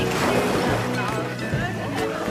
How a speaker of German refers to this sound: Und dieses wunderschöne Meer. Soweit das Auge reicht, nur Wellen und strahlend blauer Himmel.